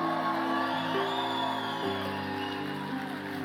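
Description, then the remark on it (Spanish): An audience shouts and cheers a cry of glory to the Lord, a loud, continuous wash of many voices, with steady held tones sounding beneath the crowd throughout. “Ponte de pie y dale un grito de gloria al Señor.”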